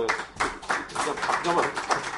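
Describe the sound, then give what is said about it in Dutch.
An audience applauds steadily for a couple of seconds, a dense wash of many hands clapping, with murmuring voices blended into the noise. “ik, ben, dankbaar voor het applaus, want dat geeft iets weer van de schifting der geesten.”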